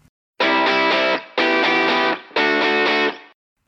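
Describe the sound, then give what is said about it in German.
Three loud, heavily distorted electric guitar chords ring out in a row, each held about a second with brief gaps between, like a rock song's riff with no vocals, from a band's well-known hit on its second studio album from 1992. “Wir hören von ihrem zweiten Studioalbum aus dem Jahr 1992 einen ihrer bekanntesten Hits, nämlich ….”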